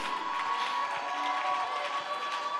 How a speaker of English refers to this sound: Somebody needs to stand up right now and clap your hands and make a little noise for the enemy to hear.